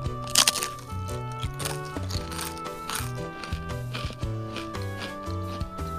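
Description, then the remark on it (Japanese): A loud crisp bite into a seafood-flavored rice cracker (senbei), followed by a run of irregular crunchy chewing sounds over a soft, steady musical background. No one speaks. “あのカリッてしててせんべいっぽさはあるんですけれども塩加減もちょうどいいですしなんとなくこう魚介っぽさが口の中に広がって”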